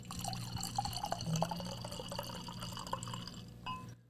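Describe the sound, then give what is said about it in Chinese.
Baijiu (Chinese white liquor) pours into a glass in a steady trickle with small splashing drips, a fairly large serving, a continuous liquid stream that stops abruptly near the end, with no voices. “来，大家可以偷窥，这不算偷窥，这叫偷听，偷听倒白酒的感觉， 偷听，偷听。”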